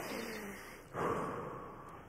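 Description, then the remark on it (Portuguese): A single audible breath demonstrating the sound that Hebrew scholars say is closest to the divine name "I am who I am": drawn in softly, then pushed out in a stronger, airy exhale about halfway through, with no talking. “Deus está dizendo: o meu nome é esse aqui, ó o som mais próximo do eu sou o que sou, os estudiosos do hebraico dizem que é o som da respiração.”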